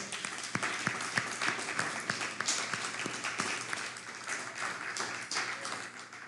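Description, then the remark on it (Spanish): Steady audience applause, a dense wash of many hands clapping with a few sharper claps standing out, sustained at an even, moderate level for several seconds without any talking. “Fuerte aplauso.”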